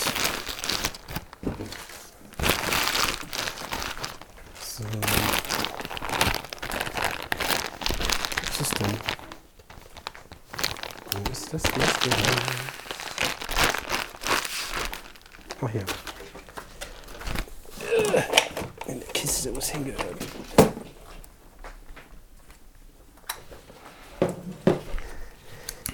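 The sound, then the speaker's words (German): Someone rummages through a drawer of old, empty batteries while fetching a battery tester, with irregular bursts of rustling, crinkling and clattering, pausing briefly midway, while a voice occasionally murmurs underneath. “ich glaube, das ist die Schublade mit den leeren Batterien”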